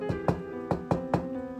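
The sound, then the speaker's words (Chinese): Urgent knocking on a door early in the morning: five sharp, hollow raps in quick uneven bursts, heard over a steady humming musical tone, with no voices. “第二天一早，我被一阵急促的敲门声所惊醒。”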